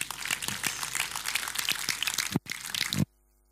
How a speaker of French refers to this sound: Et là, tu devrais applaudir le Seigneur pour ça.